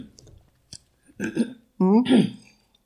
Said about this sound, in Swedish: vänta nu måste jag harkla mig lite.